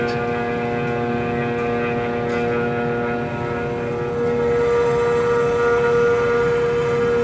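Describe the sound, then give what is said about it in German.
A router whines steadily as it mills wood on a board toward a spot where the wood is thin, a loud, continuous high-pitched machine drone with a rough grinding edge that grows slightly louder partway through. “Man hört dass er nicht mehr viel Holz muss wegfräsen muss, bis, bis eigentlich jetzt gar nichts mehr.”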